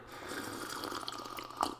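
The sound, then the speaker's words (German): Freshly tapped caffeinated apple spritzer is poured into a glass in one continuous, even splashing stream lasting under two seconds, ending with a brief bright clink-like accent, with no voices. “So, dann erstmal ein frisch gezapftes Schlückchen koffeinhaltige Apfelschorle zum Wohl.”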